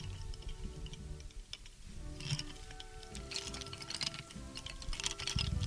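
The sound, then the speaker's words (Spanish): Wooden lace bobbins click and clatter against each other in quick, irregular bursts, fairly soft, with a low background hum and no voices, in a bobbin-lace maker's workshop in the artists' courtyard on Calle Goles. “Ese es el sonido de la madera.”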